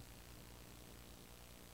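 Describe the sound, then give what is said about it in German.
A steady, faint rushing hiss of ventilation, even and unbroken throughout, with no voices or other sounds over it. “Ich glaube aber, es ist die Lüftung.”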